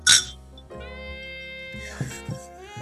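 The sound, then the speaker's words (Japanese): Glasses clink together once in a toast, a single bright chime at the start that rings briefly before fading under a steady, sustained tonal background. “じゃあ、今週。乾杯乾杯乾杯ね。乾杯。”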